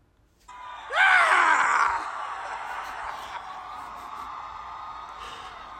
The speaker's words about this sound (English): Rah! The good old Howard Dean scream. Remember that?